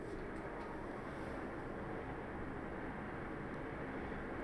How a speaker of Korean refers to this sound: 저 멀리서 기차 소리가 들려오네요.